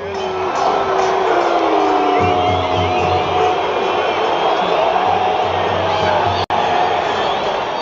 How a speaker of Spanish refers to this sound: La afición abuchea a Saldívar durante su salida. Es una mezcla entre abucheo y festejo.